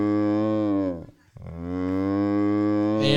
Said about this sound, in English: I'm just picturing a cow with a chair over its head, like running, like moo.